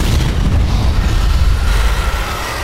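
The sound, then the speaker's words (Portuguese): A fireball explosion sound effect for a thrown fireball passing beside a character's head: a loud, deep roaring rumble that holds steady for a couple of seconds with crackling texture, easing off slightly at the end. No voices. “o Sandoval lança uma bola de fogo. A bola de fogo passa do lado da cabeça do Verne Veron, do lado da cabeça do Erevan.”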